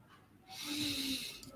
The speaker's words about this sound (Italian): Quindi dobbiamo mm, fare in modo che di emettere un suono che sia un suono afono, che ha come unico scopo quello di far vibrare le corde vocali senza però emettere un suono limpido, cioè questo.